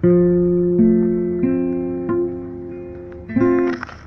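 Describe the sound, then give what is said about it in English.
Guitar notes plucked one at a time, about five in a row, each ringing out clearly and overlapping the previous one's fading sustain, at moderate volume with no talking; the notes of a held chord position are struck one by one to check that each sounds clean. “you come back again and put it on hold it again strike the notes one by one to make sure they are sounding very clean”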